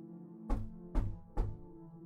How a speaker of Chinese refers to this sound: 门口响起了很有节奏的敲门声，这种节奏就像老式的摆钟一样机械。